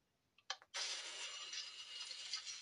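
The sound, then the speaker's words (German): In the video game Minecraft Ninja vs. Zombie, a few sharp mechanical clicks give way to a sustained grinding, ratcheting rumble of gears as a heavy door mechanism slides open, steady and loud with no voices over it. “Jetzt öffnet sich hier eine Türe.”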